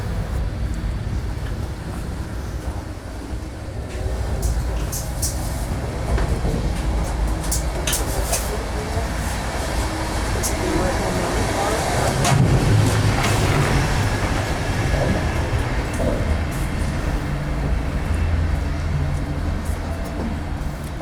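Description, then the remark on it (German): Steady low rumble of a moving train heard inside a regional railway carriage while passing through the gangways between carriages, with wheels clacking over rail joints in irregular bursts and occasional sharp metallic clicks, continuous and fairly loud throughout. “Allein, dass du durch diese Übergänge gehst und wirklich die Räder und alles authentisch hörst, war das dann hier noch das so.”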